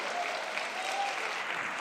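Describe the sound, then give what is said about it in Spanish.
A crowd bursts into sustained, dense applause, steady hand-clapping filling the whole clip at an even, strong level without a break. “Vamos, si tú lo crees, dale un aplauso fuerte.”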